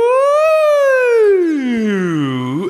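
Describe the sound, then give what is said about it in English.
A single voice, doing a vocal exercise called a siren, slides its pitch smoothly upward, then glides down in a long falling sweep before a quick rise at the end, loud. “these we start with these are called sirens, and you're gonna understand why they're called sirens in just a second, okay?”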